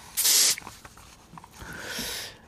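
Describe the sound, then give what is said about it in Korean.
Two hissing bursts from an aerosol spray can: a short, loud spray first, then a longer, softer spray a moment later, with no voices. “아, 칙칙 스프레이 뿌리는 소리군요.”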